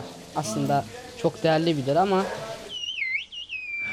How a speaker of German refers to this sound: Zwar glauben Wissenschaftler, die Vogelsprache sterbe aus, aber derzeit nimmt das Interesse an der eigentümlichen Tradition weit über die türkischen Grenzen hinaus wieder zu. In diesen Tagen schallen die Pfiffe regelmäßig durch das Tal von Küşköy.